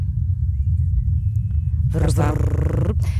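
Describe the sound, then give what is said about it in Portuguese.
A helicopter flying on Mars, recorded by a rover's microphone, is heard as a low, steady, muffled hum that drones throughout, sounding distant and thin, with a brief burst of voice near the end. “Temos, por exemplo, o som de um helicóptero em Marte.”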